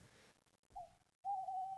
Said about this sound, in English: And you can hear the owl come in there. Yes, law of unique experiences. Whenever you hear the law of unique experiences, you're going to hear my little owl.